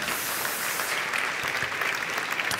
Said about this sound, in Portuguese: Quem acredita nisso, dê um aplauso a Jesus aí bem forte no seu lugar.